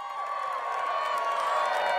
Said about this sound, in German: Sie ist es, sagt er schließlich. Aufatmen, Erleichterung, Jubel.